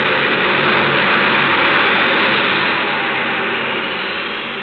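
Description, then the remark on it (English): A loud, steady roar of an airplane engine as the plane departs, a broad rushing drone that slowly fades a little toward the end, with no voices. “It appears we are too late to take Mr. Diotto off that plane.”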